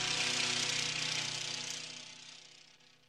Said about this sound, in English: The rhythmic sound of the lawn mower and the sweet smell of freshly cut grass was quite pleasant.